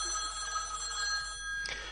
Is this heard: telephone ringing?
yes